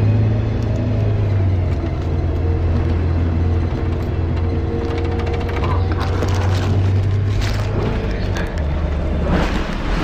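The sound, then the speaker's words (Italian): A bus engine roars at speed, a loud, continuous low rumble with a droning hum that rises and falls in pitch, along with rattling road noise throughout. “questo autobus dove deve andare, che corre, che tipo pazza.”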